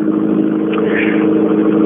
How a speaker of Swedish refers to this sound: Ja, en ilsket ylande C2 kommer över Andviken här och tar sig i mål.